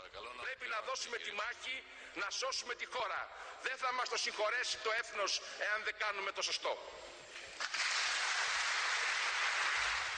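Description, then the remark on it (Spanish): A voice speaks for several seconds, then loud, sustained applause from a large parliamentary assembly swells up as parliament approves a bailout plan with harsh austerity measures, filling the last couple of seconds. “Un aplauso que significa despedir a uno de cada cinco empleados públicos y rebajar un 22% el salario mínimo para poder recibir el segundo paquete de ayudas por parte de Europa”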